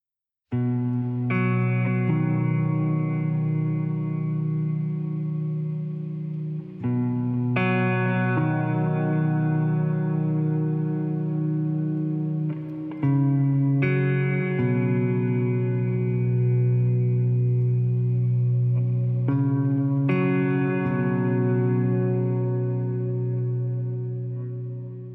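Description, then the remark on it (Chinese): Instrumental ambient music by an American instrumental ambient band, with sustained, layered guitar-like tones washed in reverb and effects, shifting chords every six or seven seconds at a steady, moderate loudness with no voices. “现在你听到的是这期节目的背景音乐，来自美国的器乐氛围乐队”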